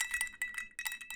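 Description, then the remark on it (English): Glasses clink together in a toast, a quick cluster of about six bright, ringing taps with a lingering chime, fairly soft, with no talking over them. “Clink, clink, clink.”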